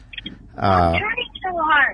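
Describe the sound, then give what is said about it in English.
A man's voice comes through a cell phone call, thin and slightly compressed, speaking a short burst of words at a fairly loud level. “He is uh, on his cell phone, as you can hear, and uh, with somebody.”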